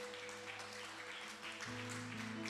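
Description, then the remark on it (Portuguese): An audience applauds Jesus steadily, a dense wash of clapping, while sustained keyboard chords hold underneath and shift to a new chord partway through. No voices are heard. “E pode aplaudir a Jesus, pode.”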